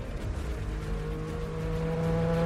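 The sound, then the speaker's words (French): A loud, steady race car engine roars, its pitch climbing slightly as it speeds past over a couple of seconds, with no voices. “Le chef du Kremlin a toujours su cultiver son image d'homme viril et puissant, n'hésitant pas à se mettre en scène, à cheval par exemple, ou au volant d'une voiture de course.”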